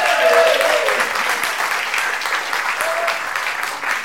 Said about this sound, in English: we can give her a big round of applause.